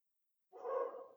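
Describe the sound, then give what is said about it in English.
A single drawn-out dog bark breaks the silence after a brief pause, fairly faint, with no talking around it. “Sorry, the dog's barking and I got distracted.”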